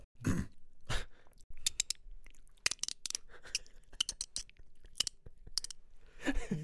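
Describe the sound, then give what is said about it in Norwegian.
Someone imitates a dolphin with a string of sharp, irregular mouth clicks and crackly squeaks, loud, with short pauses between bursts and no other talking. “It's a dolphin.”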